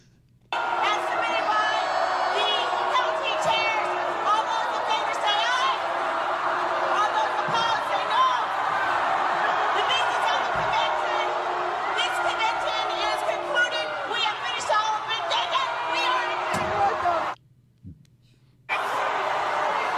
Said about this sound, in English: And people were screaming, you know, give me your a's, your ayes and give me your nays. And people were screaming, no, no, no. And she just ignored them.